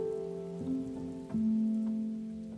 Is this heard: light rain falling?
yes